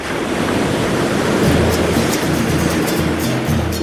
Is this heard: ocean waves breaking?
yes